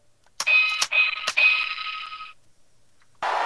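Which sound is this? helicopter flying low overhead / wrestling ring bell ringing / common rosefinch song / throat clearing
wrestling ring bell ringing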